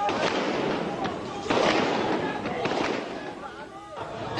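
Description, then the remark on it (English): Several sharp cracks of gunfire from army troop lorries moving down a road ring out at irregular intervals, over a constant noisy wash of crowd sound with indistinct voices. “They yelled and shouted, and then as troop lorries were seen moving down the road, there was gunfire from those lorries.”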